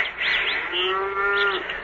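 A cow due for milking lets out a single drawn-out, steady moo lasting about a second, with faint bird chirps and a constant rushing background noise around it.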